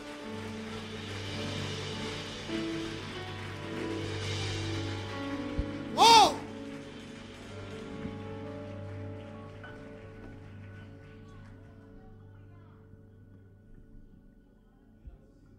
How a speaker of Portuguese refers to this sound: Aplauda ao Senhor, aplauda ao Senhor, aplauda ao Senhor.